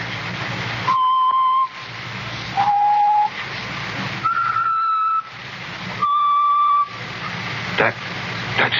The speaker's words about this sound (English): Did you ever hear it before? Yeah. I bet you did. He's always whistling it.